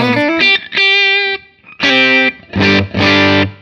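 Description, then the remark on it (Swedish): An electric guitar played through a Boss CS3 compressor pedal: a few quick plucked notes, a long even sustained note, then several loud, bright chords with short gaps between them. No one speaks. “som någon har slagit på en Boss CS3 här.”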